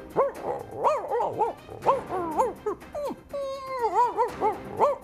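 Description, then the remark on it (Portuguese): A dog called Dr. Bobby barks and yips repeatedly in quick, uneven bursts, fairly loud, with a few drawn-out whining howls mixed in toward the middle. “Bobby está para aí a ladrar, mas passa a vida a fazer cocó na rua e nunca apanha.”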